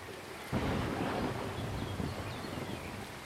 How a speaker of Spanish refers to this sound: Aquí, los aguaceros llegan así, sin avisar, para alimentar las quebradas y los ríos que nos rodean por todos lados.